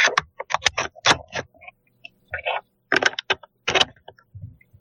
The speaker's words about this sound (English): This is the one that when I type it sounds like a herd of elephants.